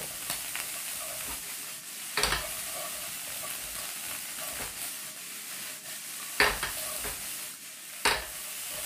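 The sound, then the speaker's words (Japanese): A steady sizzling hiss of fried rice frying in a pan, broken by a few sharp scraping and tossing bursts as the pan is flipped so the rice spins in the air and is stirred, with no talking. “今ねこれひっくり返しにこうなんつうのお米だけをこう宙に回せてすごいかっこいいんだから映像で見せれないのが残念”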